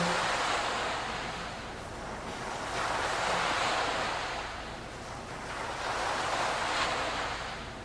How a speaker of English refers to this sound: The sound of breaking waves on the seashore.